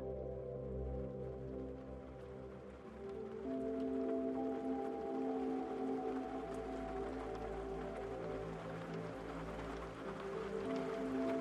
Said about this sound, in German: Stell dir vor, gleichmäßiger Regen prasselt ganz sanft gegen dein Fenster.